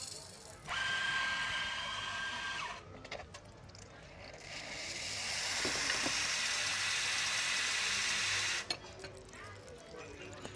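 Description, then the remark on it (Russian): A small flat white with cow's milk being made in a café: two long, loud bursts of hissing, whirring machine noise, the second swelling steadily before cutting off, with faint background murmur between them. “я на секундочку буквально отвлекусь, забегу в кофейню, возьму себе флэт вайт и мы продолжим.”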